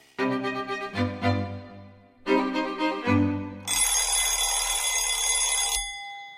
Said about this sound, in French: le dring-dring d'un réveil, c'est beaucoup moins beau que le chant d'un oiseau.